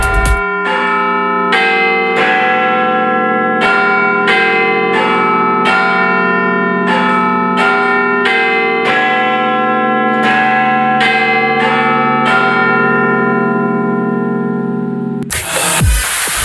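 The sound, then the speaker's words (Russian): The Big Ben clock tower bell in Great Britain chimes a slow, ringing melody, each strike layered over a deep, sustained hum that lingers throughout, loud and resonant with no voices, before cutting off abruptly at the end. “Бой Биг Бена считается символом Великобритании, его можно услышать как сигнал точного времени по радиосети BBC.”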